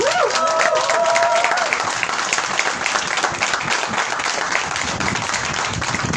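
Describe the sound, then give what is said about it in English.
A crowd at the Folkemøde breaks into sustained applause, many hands clapping steadily and loudly throughout, with a brief whistle or cheer rising above the clapping near the start. “Let's give a hand.”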